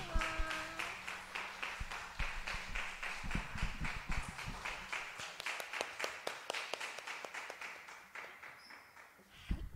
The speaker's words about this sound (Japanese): 感謝します栄光の王に拍手をして感謝します